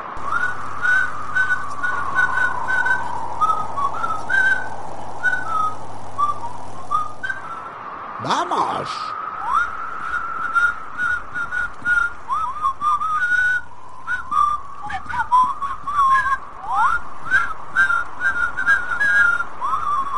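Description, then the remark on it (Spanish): Someone whistles a bouncy, lilting tune, clear, with short pitched notes rising and falling over a low steady hum and a brief rustling burst midway. “Solo presiona tus labios, junta los labios y silba.”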